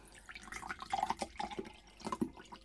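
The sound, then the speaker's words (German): Liquid is poured into a glass, a soft trickle with small bubbly gurgles and drips that rise and fall over a couple of seconds, with no talking. “Hier so ein bisschen was reingeben.”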